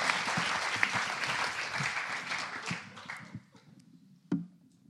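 A crowd claps steadily for about three seconds, a dense wash of many hands, then the applause thins out and fades, with a few scattered claps near the end.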